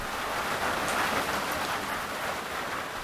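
A rain shower patters steadily on the tin roof of a shelter in a national park, a dense, even drumming of countless drops with no pauses and no voices, moderately loud throughout.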